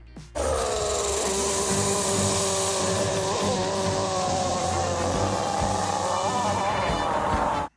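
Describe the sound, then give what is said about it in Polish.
Onix, the rock monster from the Pokémon anime, lets out one long, loud, wavering cry lasting about seven seconds while taking a shower, droning and buzzy with a slightly distorted, muffled quality. No one speaks over it. “No posłuchaj, posłuchaj jak brzmiał Onix e, z anime, kiedy wziął prysznic.”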